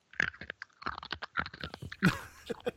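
Someone chews a black Halls mint candy, with a quick, irregular run of sharp crunches and cracks lasting a few seconds, loud and dry, with no talking.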